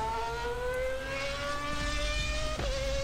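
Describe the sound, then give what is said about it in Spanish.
A race car engine revs up in one continuous run, its loud, steady whine climbing gradually in pitch over a few seconds, counting up through one, two, three and four thousand revolutions per minute, unbroken, with no voices. “Mil, mil, dos tres mil, cuatro mil revoluciones por minuto.”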